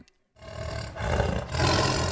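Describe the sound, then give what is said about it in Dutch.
A voice imitates a growling tiger with teeth clenched together, making three rough, rasping growls in quick succession, loud, with no other talking. “Haha, zet jij nog eens je tanden op elkaar als een grommende tijger?”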